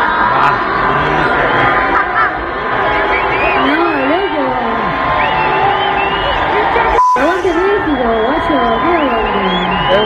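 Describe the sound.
A large crowd in Mexico boos a female performer loudly and continuously, a dense roar of many voices with wavering, rising and falling shouts, interrupted by a split-second cutout before the jeering resumes.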